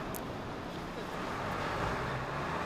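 A steady wash of road traffic at a city intersection in Ueda, Nagano Prefecture, Japan, on an afternoon under clear skies after heavy rain, with continuous engine rumble and tire hiss from passing cars and no distinct pauses.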